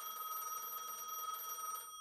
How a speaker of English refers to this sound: Then my phone rang.